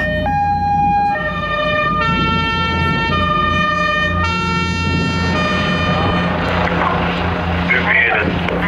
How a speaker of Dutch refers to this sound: En het was één grote sirenezee op dat moment al.